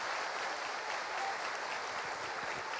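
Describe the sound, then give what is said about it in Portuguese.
Steady audience applause, given in praise of God, fills the space: a dense wash of many hands clapping at once, sustained at an even loudness throughout with no voices standing out. “Então aplauda de Deus a sua vida, desafio de Deus para a sua vida.”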